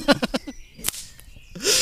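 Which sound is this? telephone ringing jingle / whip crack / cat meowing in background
whip crack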